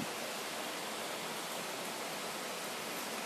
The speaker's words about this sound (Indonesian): gue nggak tahu sih ya nanti bakal kerekam atau enggak tapi kondisi gue ngerekam lagi hujan nih ya semoga aja nggak masuk suara hujan ya